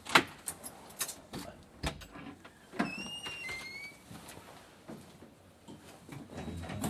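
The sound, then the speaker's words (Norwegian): A front door of a house is being opened: metallic clicks and rattles from the handle and lock, then a brief high-pitched hinge squeak, with scattered knocks and shuffling throughout. “Da går vi opp på trappa her. Sånn med hånden i dør og”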